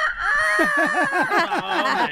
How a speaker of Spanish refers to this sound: Pero a muchos vecinos les enfada, loco, esos ruido de los gallos. Uno llega bien borracho a la casa, quiere dormir el siguiente día y los gallos